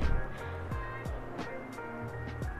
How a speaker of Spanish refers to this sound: ¿Escuchas que pita un carro?